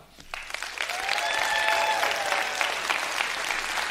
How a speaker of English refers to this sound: So, all right, but nonetheless, we're talking about extraordinary Jesus, so I want you to give Jesus a standing ovation. Everybody under 40, go.